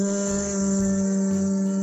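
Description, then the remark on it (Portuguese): A single voice holds a steady buzzing "zzz" sound, the Z sound, without a break, imitating a bee's hum at an even pitch and loudness, done as a vocal warm-up exercise. “som da abelhinha, que eu sempre digo, vamos fazer o som da abelha.”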